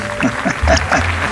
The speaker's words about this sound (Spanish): Vale, un aplauso, por favor.